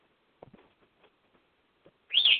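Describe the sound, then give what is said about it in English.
A few faint, scattered chirps from covered-up pet birds at night lead into one loud, shrill, high-pitched squeal near the end, with no talking. “Birds, go to bed. You're covered up. Sorry. They're extra squealy tonight.”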